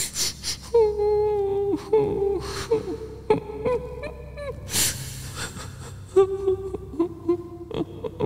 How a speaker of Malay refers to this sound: Bunyi suara wanita menangis ni halus je tau. Tapi jelas. Seolah-olah suara tu datangnya daripada bilik tandas bersebelahan dengan tandas saya.